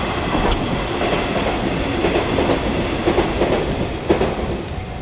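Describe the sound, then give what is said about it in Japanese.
A commuter train on the Nishitetsu Tenjin-Ōmuta Line near Kasugabaru Station in Japan rolls past, not speeding up, a steady loud rumble with rhythmic clacking of wheels over rail joints running through the whole stretch, no voices. “これも普通の電車の音ですねスピード上げてない”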